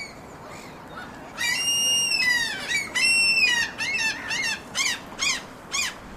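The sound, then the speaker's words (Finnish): Gulls cry out by a windy spring terrace in a series of loud, harsh calls, several long wailing ones followed by shorter rhythmic yelps, over a steady background of wind noise. “Meidän lokit täällä.”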